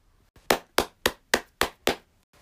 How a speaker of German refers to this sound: Wo bleibt mein Applaus? Ich schenke dir deinen Applaus.